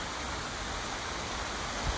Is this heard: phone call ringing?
no